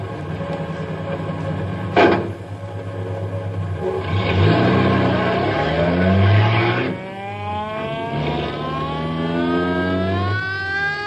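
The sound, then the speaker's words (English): A car engine revs and accelerates while driving down a mountain road, its pitch climbing and falling through several gear changes, with a brief sharp bang early on and a rushing roar in the middle. “Hey, that guy's either drunk or crazy. Uh, I'll say, so that's no way to drive down a mountain road.”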